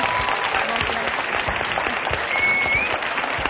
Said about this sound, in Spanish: un, aplauso, aplauso, muy fuerte para ella.